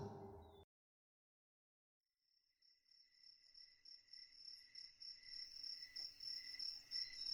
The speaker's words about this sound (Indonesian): Malam itu langit mendung dan hanya suara serangga yang terdengar.